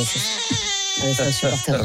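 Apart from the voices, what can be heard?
baby crying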